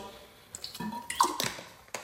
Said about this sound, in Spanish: Familia, voy a darle un traguito de agua.